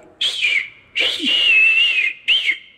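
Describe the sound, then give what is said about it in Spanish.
A voice imitates the squeaky hammer hit of El Chapulín Colorado's hammer striking someone: three high, whistle-like squeaks, short, then a long wavering one, then another short one, fairly loud with no talking. “Claro que el Chapulín Colorado, cuando él le pega a alguien con el martillo, o sea”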